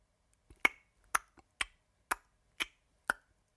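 Six small, sharp clattering footsteps of a walking clock, some way off, tap out a steady, even rhythm about twice a second, like a ticking clock, each one crisp with quiet pauses between and no talking.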